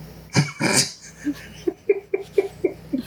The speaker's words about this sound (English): That dog always sounds like it's getting stepped on, it's kind of funny.